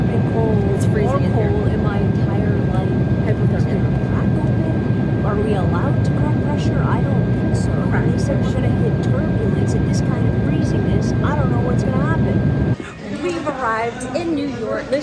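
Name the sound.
airplane cabin noise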